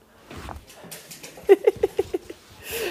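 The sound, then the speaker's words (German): A dog scrambles across a parquet floor after a ball, its claws clattering in a quick burst of about six sharp taps, then a soft rushing noise as it settles. “Hund auf Parkettboden ist ein wahnsinnig tolles Bild.”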